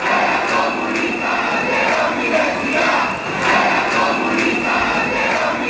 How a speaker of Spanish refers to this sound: También hubo aplauso de los eh, estudiantes que eh, se eh, daban esta consigna.